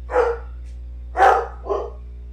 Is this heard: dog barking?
yes